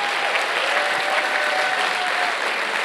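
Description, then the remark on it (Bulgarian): An audience applauds with steady, dense clapping that fills the whole stretch at an even, fairly loud level, with no voices standing out above it. “Айде сега пляскай, това е забранена тема. Пляскай!”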